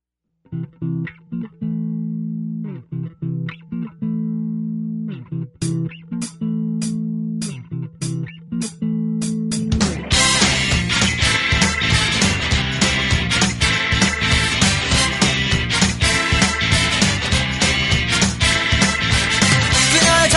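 A pop song recording starts with a sparse intro of steady sustained notes and crisp rhythmic hits, then swells about halfway into a loud, full band arrangement that carries on to the end.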